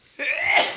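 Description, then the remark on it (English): A single sharp sneeze bursts out suddenly, a loud breathy blast with a slightly voiced edge that lingers for about half a second before cutting off, with no talking around it. “Bless you.”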